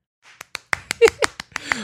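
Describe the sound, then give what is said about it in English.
Hands clap on the sidelines in an irregular burst of about eight sharp, crisp cracks over two seconds, unevenly spaced, with a brief faint vocal sound mixed in partway through. “But at least they're number one at something, and that is, of course, clapping on the sidelines, not being aggressive late in this game.”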